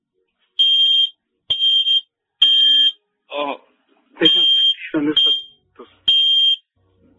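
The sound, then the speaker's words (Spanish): A loud electronic alarm from a cardiac medical device beeps in repeated sharp bursts, about six of them, signalling an altered cardiovascular system, while a person's voice speaks briefly between the tones. “No, es, tengo un dispositivo porque a, partir de eso eh, he tenido problemas cardíacos.”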